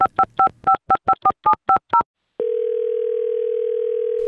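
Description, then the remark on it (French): A rapid series of about nine touch-tone dialing beeps, evenly spaced, followed after a short pause by a steady, continuous telephone dial tone, as a phone call is placed. Clear, with no voices. “ça serait important quand même d'entendre ce que Claude Meunier aurait à dire là-dessus. On va l'appeler.”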